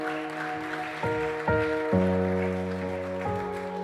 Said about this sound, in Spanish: Dale otro aplauso fuerte.